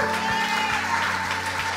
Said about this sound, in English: Come on, give him a hand clap as he comes forward.